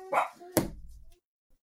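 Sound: dogs barking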